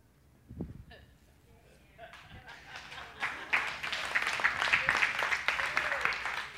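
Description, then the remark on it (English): An audience at a second service breaks into applause that starts sparse and builds into a steady, dense wash of many hands clapping, growing louder and continuing to the end. “I didn't know I was going to get an applause for you there.”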